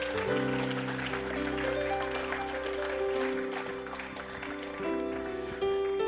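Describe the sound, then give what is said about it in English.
An audience at an evening church service claps and applauds steadily for several seconds to praise the Lord, a dense crowd patter mixed with sustained organ or keyboard chords playing underneath. “If you've received the word of the Lord tonight, just give him a big clap, somebody, and just praise him.”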